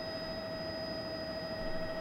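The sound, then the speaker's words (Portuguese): Steady, droning engine roar of a helicopter in flight carrying a sports reporter, with a constant whine riding over the low rumble and no voices. “Eu tô aqui em cima, tô morrendo de medo nesse helicóptero, que meu negócio é ficar lá embaixo atrás do gol”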